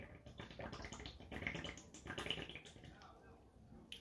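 Someone pauses from speaking to drink water, with steady sloshing and swallowing for a few seconds and no talking.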